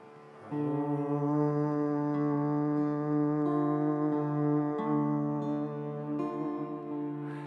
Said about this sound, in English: So we'll hum on this note. Big breath in and then humming.